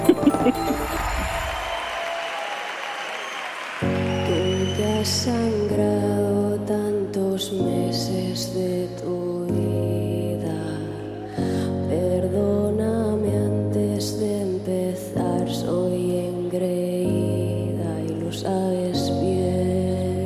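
A Spanish-language song by a female singer plays loud and steady, opening with a brief noisy swell before sustained chords settle into an even rhythm beneath the wavering vocal line.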